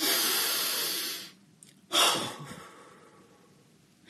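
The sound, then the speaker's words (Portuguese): An airy breath is followed by a sharp, forceful exhale through the mouth, demonstrating a breathing exercise, that trails off gradually, loud and hissing, with no talking. “Soltar pela boca não produz estado alfa. Muita gente não sabe meditar e faz alguns exercícios assim, ó.”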